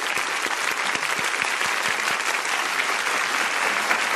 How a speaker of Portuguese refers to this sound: Palmas para os ratinhos branquinhos, magrinhos.